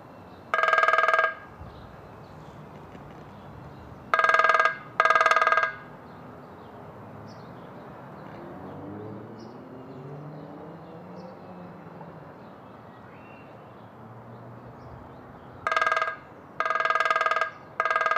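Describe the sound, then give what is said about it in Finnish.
Grey-headed woodpecker drumming in short, loud, ringing bursts, with one roll, then a close pair, a long pause, and another quick series. Steady outdoor hiss and low rumble fill the gaps. “Mutta että harmaa päätikka.”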